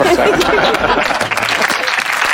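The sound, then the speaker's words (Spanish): Loud, dense applause from a group, many hands clapping in a steady crackling wash with no pauses, lasting a couple of seconds. “Por favor, aplaudan una a las esposanzas.”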